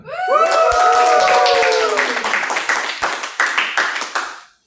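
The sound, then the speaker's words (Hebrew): A studio audience claps steadily, with a few rising cheers and whoops early on, and the applause thins into scattered claps before stopping. “אז קודם, תעשו מחיאות כפיים נורא, נורא עדינות, אבל כן.”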